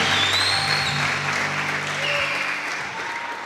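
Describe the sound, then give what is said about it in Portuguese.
An audience at a worship service applauds God together, a dense, steady wash of clapping that stays loud through the whole stretch, with faint murmuring and low sustained tones underneath. “Só quem crê, levanta as duas mãos e dá o um melhor aplauso a Ele.”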